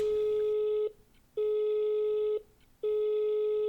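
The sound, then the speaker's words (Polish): A phone line rings out on an outgoing call to a business: three steady, buzzy mid-pitched ringback tones, each about a second long, separated by brief silent gaps. No one speaks. “No i zaczęłam dzwonić, dzwonić, dzwonić.”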